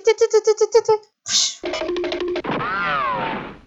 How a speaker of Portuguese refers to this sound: E, e, tem, sabem, aquele som de quando um desenho animado começa a correr.